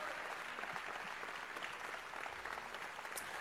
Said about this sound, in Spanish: I don't feel your clapping.